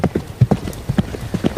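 Horse hooves clip-clop in a quick, steady rhythm, a string of sharp knocking hoofbeats at a moderate level with no voices.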